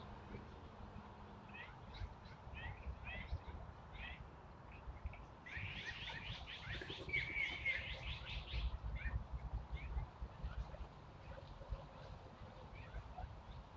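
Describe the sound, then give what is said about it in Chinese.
Wild birds flying overhead chirp outdoors, heard while birdwatching from a hammock during a holiday, in short, repeated high-pitched bursts, with a denser flurry of calls in the middle, over a steady low rumble of background noise. “听着鸟叫、看着鸟飞”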